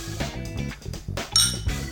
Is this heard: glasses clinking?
yes